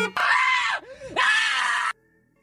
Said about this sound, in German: Warte, ich mach mal einen Schrei.